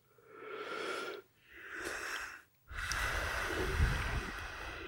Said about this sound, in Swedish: Gäspade du också? Nej, nej, absolut inte. Första gången du har gäspat va?